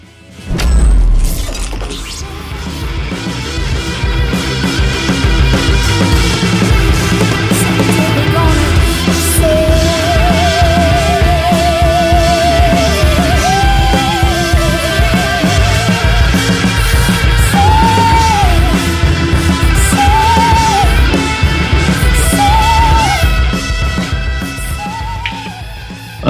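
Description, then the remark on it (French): A loud, dense rock track with swirling, wavering guitar feedback tones looping over a thick, distorted wall of sound that holds steady throughout, with no voices. “prenez tout d'abord euh, une guitare au Larsen qui tourbillonne avant que le morceau trouve son rythme avec une, bonne basse qui pousse tout le groupe vers l'avant.”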